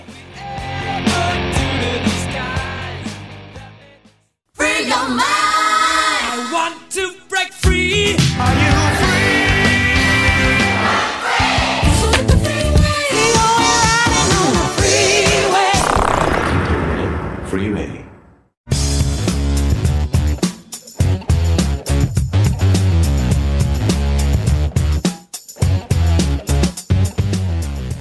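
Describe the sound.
Loud, full-band rock music with a singing voice carrying the melody over driving drums and guitars, cut into several sections separated by brief pauses.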